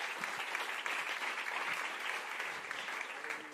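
Steady, dense applause from an audience welcoming a speaker onto a stage, a continuous crackle of many hands clapping at an even loudness for several seconds, with no voices standing out.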